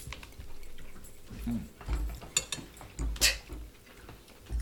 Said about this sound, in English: So that quiet moment we just had was brought to you by us all eating and chewing.